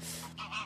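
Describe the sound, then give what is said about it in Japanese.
A waterbird gives two quick nasal honks in succession, clear, over a steady low hum of outdoor background noise at a boat landing on a lake, by a lakeside hotel away from houses and town. “お鳥が鳴いてるちょっと今はね本当湖のあの船船着き場みたいなところに今ね来て、まあ、このポッドキャストを撮ってるんですけどもう今はですねここはやっぱりそのもう郊外というかもう周りにね何もないんですよ。”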